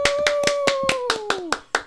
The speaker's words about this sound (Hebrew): כפיים לליאור פלג!